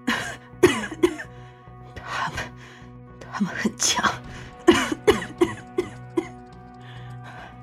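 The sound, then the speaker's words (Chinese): A voice performs weak, breathy coughs and gasps of a character hurt after being knocked into a cave wall by rat monsters. Several short bursts are scattered among halting, strained speech, sounding feeble and out of breath. “艰难的站直身子，虚弱的咳嗽着，喘着气说道”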